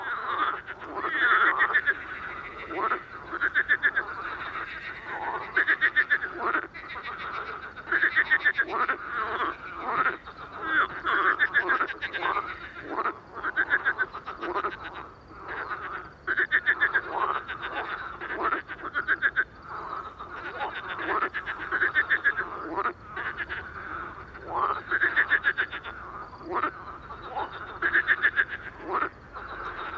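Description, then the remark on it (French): A dense chorus of marsh frogs croaks continuously at night around 23:05, air at 11 °C, many overlapping rattling calls pulsing in rapid bursts, loud and steady throughout with no voices; some frogs call from about twenty metres away. “Soirée aux Grenouilles rieuses”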